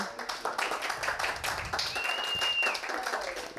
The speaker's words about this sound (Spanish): Eh, y quiero volver a pedirles un gran aplauso